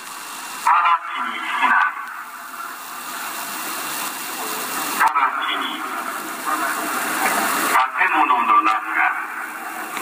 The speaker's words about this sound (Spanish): Lo que estamos escuchando ahí de fondo es la alerta que emite Japón pidiendo a sus habitantes que busquen refugio. Así suena la alerta allá cuando se lanza un misil.